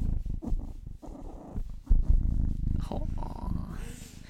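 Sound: cat purring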